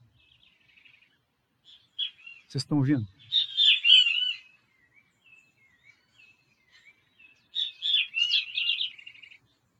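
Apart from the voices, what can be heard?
bird singing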